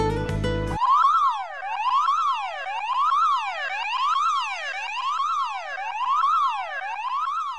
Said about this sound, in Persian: این صدای آژیر خطری که به گوش شما میرسه در ایستگاه فضایی